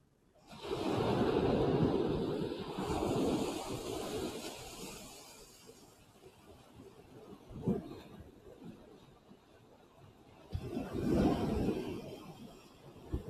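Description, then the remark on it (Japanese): Ocean waves wash onto a sandy beach at the water's edge in broad surges, a loud roaring swell at the start, quieter churning in between, then another big wave breaking near the end, with some wind rumble. “ちょっとすごく今日はですね、波の音が聞こえると思うんですが、波打ち際にまね、砂、海岸に座っているので、ザバーザバーと音が聞こえてると思います。”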